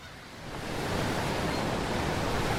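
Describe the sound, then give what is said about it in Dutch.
A dense, roaring wash of sea waves, set in motion by a meteorite impact in the Gulf of Mexico off the Yucatán Peninsula, swells up over the first second, then holds as a loud, continuous surging rush of water with no voices. “Want de inslag zet daarnaast ook de zee in beweging.”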